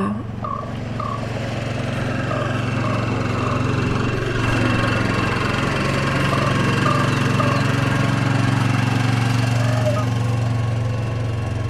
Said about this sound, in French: Et là, c'est mon voisin qui vient de, qui vient de passer en quad.